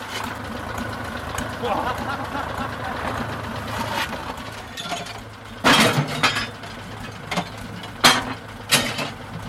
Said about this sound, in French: Les gars chargent la bête du tracteur tandis que Caillot fait danser son engin Manœuvre de précision, guidée au signe de tête et de main.